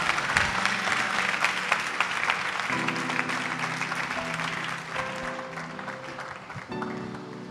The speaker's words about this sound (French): Acclamons Jésus très fort.